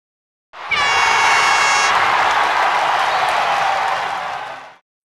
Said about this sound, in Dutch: Een applaus is op dit moment dan ook wel gepast. Maestro!